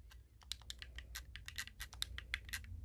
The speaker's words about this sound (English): Sorry if you hear a lot of clicking. It's me kind of going fast on my controller, like.